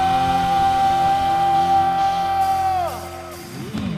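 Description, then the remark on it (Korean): An audience at a church worship service applauds and cheers in glory and thanks to the Lord over a sustained held chord. The shouting and clapping stay steady and fairly loud for about three seconds, then drop away as the chord fades. “오늘 예배 가운데 주님이 주신 은혜가 필요하신 분은 크게 주님께 영광의 박수 감사의 박수 승리 감사”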